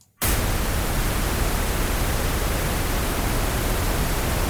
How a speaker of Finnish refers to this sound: Tämä tulee ilmeisesti vähän eri taajuuksilta, niin kuunnellaan miltä se niin kuin pinkki kohina kuulostaa.